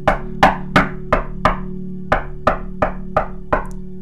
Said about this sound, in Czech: Náhle se ozvalo zaklepání na přední dveře.